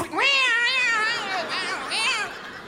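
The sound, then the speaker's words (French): A cat lets out a long, drawn-out meow that wavers up and down in pitch, fairly loud, with no one talking over it. “Tu sais, avec le chat derrière.”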